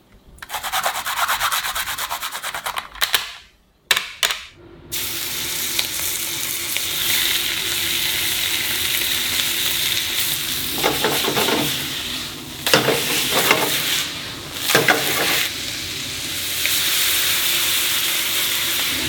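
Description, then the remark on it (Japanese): Steady sizzling of food frying in the kitchen of the Tonkin Polynesian restaurant in Gotanda in the morning, with scraping and stirring bursts, a brief pause near the start, then continuous hissing under clattering utensil sounds. “今朝は五反田にあるトンキンポリネシアンのいい音”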